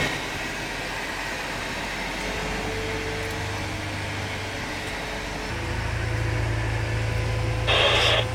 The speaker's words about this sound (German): So, das Flugzeug ist jetzt bereits zurückgeschoben und steht schon parallel zum Terminal. Auch das zweite Triebwerk ist jetzt gestartet.